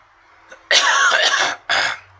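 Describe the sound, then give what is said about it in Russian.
A loud cough in two harsh bursts: a longer rasping one followed by a short second cough, with no talking around them. “Кашель тоже задолбал.”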